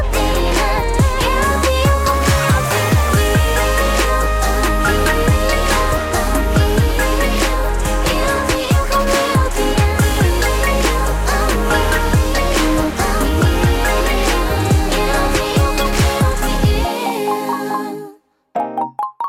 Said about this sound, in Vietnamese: một bài hát rất là dễ thương và có những cái âm thanh rất là điện tử để chúng ta có thể liên tưởng đến những máy chơi game đúng không ạ?